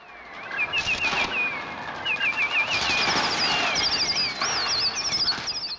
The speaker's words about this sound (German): Schrille Töne aus Alfred Hitchcocks Gruselklassiker Die Vögel. Aber es sind keine Vögel, die man hier hört. Es sind Klänge eines Trautoniums, dem schwierigsten Instrument der Welt, wie manche sagen.